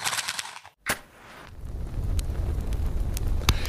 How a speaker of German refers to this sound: Ich mache noch schnell das Lagerfeuer an und dann legen wir los.